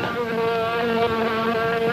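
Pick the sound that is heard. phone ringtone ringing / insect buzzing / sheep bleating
insect buzzing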